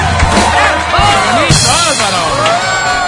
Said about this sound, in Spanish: Bravo, gracias a ti. Aplausos fuertes.